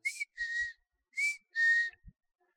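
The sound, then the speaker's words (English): A person whistles an imitation of a bird's call, two pairs of clear notes, each a short high chirp followed by a longer, slightly lower tone, soft and breathy with no talking. “and the bird replied, and I replied, I stood there for five minutes, I kid you not, and we sang to each other, this bird and I.”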